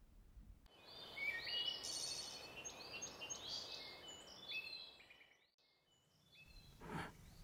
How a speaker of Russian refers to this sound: Слышите? Это шумит лес. Так он дышит.